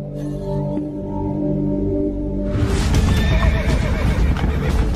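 A horse gives a loud, drawn-out neigh that breaks into a rough, shuddering whinny, with no one speaking.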